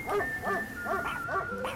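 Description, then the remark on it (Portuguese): Two or three dogs bark at a roadside bar in a quick, steady series of about five sharp, overlapping woofs, moderately loud, with a faint high whine lingering underneath. “Enquanto me aproximava, o povo foi parando de falar olhares assustados com minha presença, gatilhos de pimenteiros velhos sendo armados e uns dois ou três cachorros latindo.”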